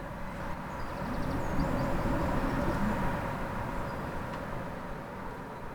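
A steady, loud roar of wind rushing without pause, a dense low rumble with a hiss on top, holding at an even strength throughout with no voices.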